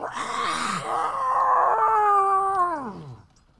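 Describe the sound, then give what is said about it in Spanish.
A single long, wailing scream carries from a distance, holding a wavering pitch for a few seconds before sliding downward and fading out, with no talking. “Oh, y ustedes nada más oyen un grito de la distancia.”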